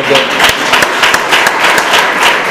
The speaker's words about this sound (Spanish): En el número 6, Francisco Javier Trinidad, Casablanca, no puede venir, está de boda. Bueno, de todas maneras vamos a dar un aplauso porque